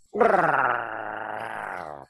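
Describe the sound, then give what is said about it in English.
A voice imitates an impact driver sinking a GRK screw into a stud during renovation work in a showroom: a buzzy, sustained whirring growl lasting about two seconds, pitch sagging slightly as it goes, with a faintly pulsing texture. “yeah, driving a like, oh, thanks, guys, GRK into a into a stud,”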